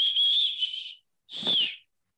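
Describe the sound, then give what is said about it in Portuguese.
A person imitates the whistling of Ceará football coach Marquinhos: two loud, shrill notes, a long steady blast of about a second, a short pause, then a shorter, breathier whistle. No one talks. “Mas ele tem a mania de assobiar”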